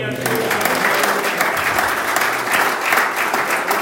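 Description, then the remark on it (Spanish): An audience breaks into steady, sustained applause for the Lord, many hands clapping together in a dense, even wash of sound that holds at a strong level throughout. “para a dar un aplauso al Señor.”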